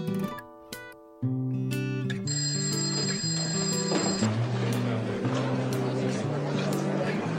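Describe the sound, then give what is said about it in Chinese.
A phone text message alert chimes as a text from a mother arrives: a few bright, bell-like tones ring out, then a steady layered melody of sustained electronic notes continues at a fairly constant loudness. “我妈给我发短信说今天早点回家，我爸回来了，我就不和你去了啊！”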